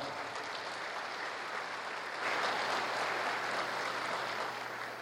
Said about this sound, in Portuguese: Então, quero agradecer à Assembleia Legislativa. Uma salva de palmas à Assembleia Legislativa do Estado de São Paulo.